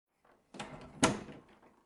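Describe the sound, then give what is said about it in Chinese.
A door swings and slams shut with one sharp, heavy bang, preceded by a brief rattle of the handle and followed by a short fading rumble. No voices. “沈西想问清楚，他就砰的一声把门关上了。”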